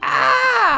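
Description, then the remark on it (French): A person gives a single short, strained cry imitating an Asian palm civet (louac): a loud, nasal 'ah' that holds steady and then slides down in pitch before cutting off. “C'était le cri du louac.”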